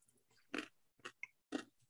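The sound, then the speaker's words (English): Crisp crunching from someone chewing a Reese's candy bar with potato chip pieces: three sharp bites spaced about half a second apart, with a smaller crackle in between and no talking. “I do hear the crunching.”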